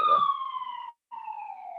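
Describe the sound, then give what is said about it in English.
An ambulance siren wails with steady, slowly falling tones, sounds briefly, cuts out for a moment, then resumes, moderately loud as if from the ambulance passing outside. “ambulance.”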